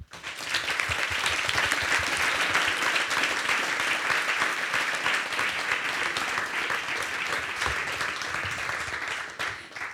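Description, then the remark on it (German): An audience applauds steadily for about ten seconds, a dense, even crackle of many hands clapping at once that holds its level before tapering slightly at the end. “Vielleicht nochmal einen Applaus, wirklich.”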